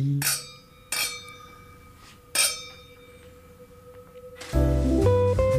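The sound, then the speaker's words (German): Three bright clinks of wine glasses touching in a toast, each leaving a clear ringing tone that fades slowly, spaced a second or so apart, before music starts up near the end. “Wir sagen Prost, Santé, Cheers und freuen uns auf das nächste Mal.”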